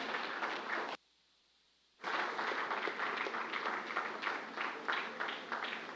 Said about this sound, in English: Let's, let's clap for these people. It takes a lot of courage to do that.